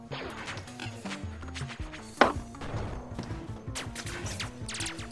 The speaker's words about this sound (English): i'm going to try to change that uh, by taking another shot at the boy in the south okay uh, i don't i don't think there's any way i have advantage this time so i'm just going to hope my dice like me